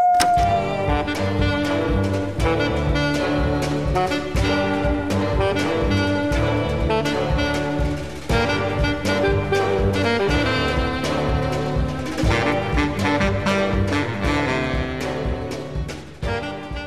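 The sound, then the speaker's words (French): A short stretch of a music track plays loud and up close, a full instrumental mix with a steady, regular beat and layered sustained tones running continuously throughout. “voici un court extrait d'un des morceaux les plus connus du monsieur”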